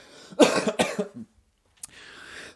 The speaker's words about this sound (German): Jetzt muss ich mal husten